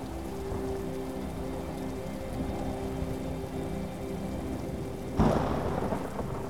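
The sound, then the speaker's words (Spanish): Steady rain hisses throughout a summer thunderstorm, with low rolling rumbles of thunder underneath and a sudden, louder thunderclap bursting in near the end. No one speaks. “Si somos naturaleza, qué equivaldría una tormenta de verano en un ser humano?”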